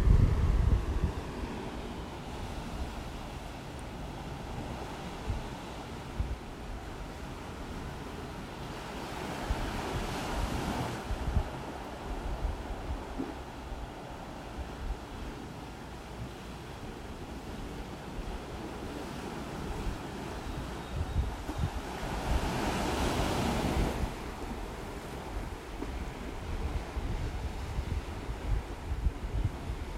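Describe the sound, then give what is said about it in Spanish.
Ocean waves roll in steadily, with two broad swells around ten and twenty-three seconds rising into a soft hiss of surf over a constant low rumble, plus some wind buffeting. Nobody speaks. “Y voy a relajar el cuerpo y la mente por un minuto más, conectando con el sonido del mar.”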